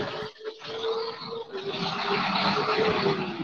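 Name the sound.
car passing by outside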